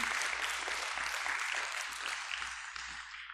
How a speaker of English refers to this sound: We give Jesus a hand clap of praise for what he's going to do.